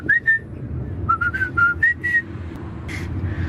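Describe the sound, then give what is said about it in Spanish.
Someone whistles the Happy Birthday tune, a short run of clear, bright notes in a steady rhythm over a low background rumble, with no talking. “¿Y por qué me cantas el feliz cumpleaños ahora?”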